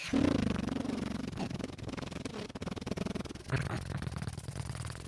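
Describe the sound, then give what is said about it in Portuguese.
A voice imitates a helicopter with a rapid, steady throbbing buzz. It keeps going for several seconds with a brief shift partway through, and nobody talks over it. “Aí chega o helicóptero.”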